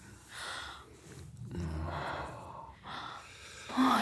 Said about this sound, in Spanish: Y entonces suelta un gemido cuando sostengo su erección.